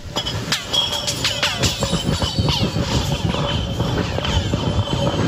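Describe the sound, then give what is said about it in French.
A 9-inch (about 22 cm) ice block dropped by a man down a hole in the ice more than 137 metres deep, striking the walls again and again, producing a cascade of bright, ringing, echoing pings and cracks with descending whistling tones, steady and loud throughout. “Un feu d'artifice d'harmonique quand la glace heurte la glace, j'adore.”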